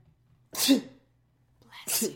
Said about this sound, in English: Sorry, I need to sneeze.